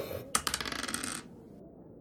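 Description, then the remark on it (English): A twenty-sided die, rolled for a perception check, clatters across a table: a sharp first hit followed by a quick run of bright, rattling taps that fade out after about a second, with no voices. “So we walk in, and I want to do a perception check for the books on the Black Temple. Cool. Roll a d20.”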